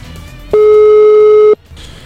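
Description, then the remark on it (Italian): A telephone ringback tone for an outgoing call from a radio program to an undersecretary sounds once as a loud, steady, single-pitched beep lasting about a second, with only faint background noise before and after. “E allora vi sentite la chiamata al sottosegretario che cita Dante.”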